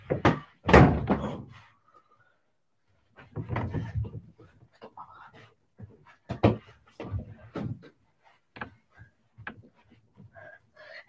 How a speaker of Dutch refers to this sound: Wat zitten jullie te stampen? Niks? Jawel. Nee. ja. Ik kom niet voor gewoon. Ja, maar dat moet je niet doen, want dat dreunt als een gek beneden.